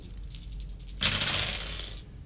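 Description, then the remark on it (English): Dice rattle with a few light clicks, then tumble loudly across a table in a dense, clattering burst that scatters everywhere for about a second before stopping. No voices are heard. “That was everywhere. That's why the dice tray's there. Take the dice out of it and roll the dice on the dice tray.”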